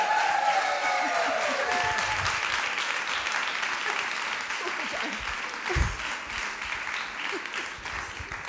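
Steady audience applause fills the whole stretch, a dense wash of many hands clapping at an even, moderately loud level, with a few faint voices and whoops mixed into the crowd noise.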